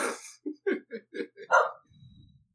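A dog barks in a quick series of about six short, sharp yaps, fairly loud, ending in a brief low rumble or growl.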